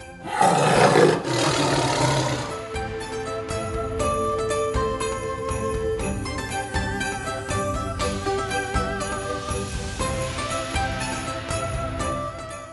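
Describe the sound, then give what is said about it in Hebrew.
A single loud lion roar bursts out over the opening two seconds, then gives way to a steady bed of tinkling, chiming music that carries on to the end. No one speaks. “על העמידה על האמת, איך מכנים אותו את רש"י? האריה.”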